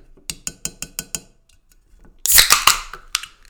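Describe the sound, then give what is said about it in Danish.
Six quick, bright clinks of glasses tap in a steady rhythm for a toast, followed after a pause by a louder rush of hissing, fizzy noise from a bubbly drink with a few more sharp knocks. No voices. “Skål i dagens anledning, min.”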